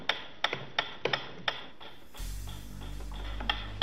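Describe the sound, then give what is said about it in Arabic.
A metronome ticks with sharp, crisp clicks at a brisk, fairly steady pace; about halfway through, a loud low hum and hiss come in, nearly burying the later ticks. “A ticking metronome.”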